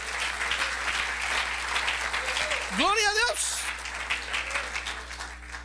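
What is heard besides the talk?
audience applause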